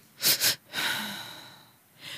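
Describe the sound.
A person takes two quick, sharp inhales through the nose, then lets out one long, slow, airy exhale, a calming double-breath sigh, with a faint new breath starting at the end.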